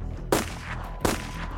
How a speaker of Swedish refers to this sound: Vladimir Purskivich och Dmitrij Pavlovich följde efter och avfyrade två skott var.